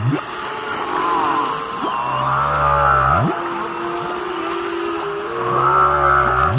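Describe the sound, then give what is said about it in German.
Whales calling to each other underwater, picked up by a microphone connected to an amplifier and held in the sea: a mix of low rising moans and higher drawn-out tonal cries that overlap and sweep in pitch, steady and fairly loud over a hissing, murky background. “So hört sich das an, wenn Wale untereinander bequatschen, was es so Neues gibt.”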